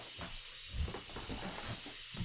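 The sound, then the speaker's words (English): A radiator steam valve hisses steadily throughout as the radiator's handle has been twisted to turn it off, a soft, continuous airy rush with faint low knocks and rumbles underneath, no one speaking. “Yeah, I mean, it takes a while for the steam valve to stop doing its thing”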